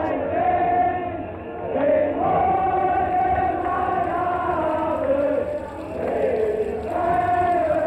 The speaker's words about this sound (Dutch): er stonden gewoon honderdduizenden mensen hier op de Koolsingel om Koen Molijn en de zijne toe te juichen